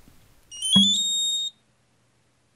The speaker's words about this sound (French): Soit tu as un petit bouton qui s'appelle bip, et si tu appuies, le petit objet se met à biper. Donc je vais le faire biper, mais vous avez dû l'entendre tout à l'heure parce que j'ai appuyé sans faire exprès.